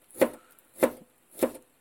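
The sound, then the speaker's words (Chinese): Three evenly spaced knife chops on a cutting board, crisp thuds about half a second apart, as ginger is cut to add to a chicken breast dish, in Tokyo. No one speaks. “大家又哎，我发现有朋友给我留言说，听到我切菜的声音还蛮治愈的，是不是有生活化？”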